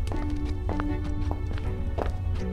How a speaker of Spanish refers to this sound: Solo podía oír los tacones de la chica a unos metros frente a mí. De pronto, se detuvieron.